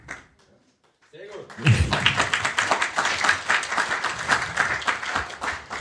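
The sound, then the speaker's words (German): Audience applause bursts in after a brief quiet moment, a dense, steady clatter of many hands clapping that holds at a fairly loud level until the end. “Der Applaus gilt ihm.”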